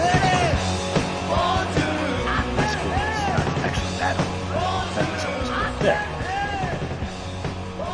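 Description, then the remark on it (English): A loud, raw rock song plays continuously, with a strained, shouting lead vocal over dense distorted guitars and steady pounding drums. “What are you playing? You're not allowed to say.”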